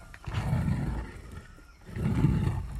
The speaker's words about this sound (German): So hört es sich an, wenn Kakaobohnen getrocknet und dabei mit dem Rechen gewendet werden.